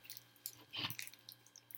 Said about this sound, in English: We need a moment to chew our Starburst.